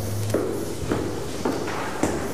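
Four evenly spaced footsteps thud at a steady walking pace over a low background hum, moderately loud, with no voices.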